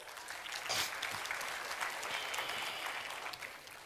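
A crowd claps steadily for about four seconds as a volunteer from the audience comes up on stage, a dense, even wash of applause with a brief louder swell near the start and a slight fade at the end.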